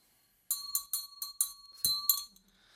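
A small hand bell rung in a quick, uneven series of about seven bright metallic strikes, its steady ringing tone sustaining underneath, fairly loud before fading out.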